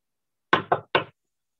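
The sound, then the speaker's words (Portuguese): Three sharp, fairly loud knocks on the door of the room next door, with a brief pause before the third, then silence. No one speaks or answers. “Diante do quarto ao lado, comecei a bater na porta, meio que sem saber o que esperar, mas ninguém respondeu.”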